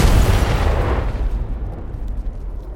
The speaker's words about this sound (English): From behind the door of the office, you hear the sound of an explosion. And the wall separating the two of you from this room where Murken and the Thin Man went in shakes, and dust and bits of debris from the ceiling around you kind of falls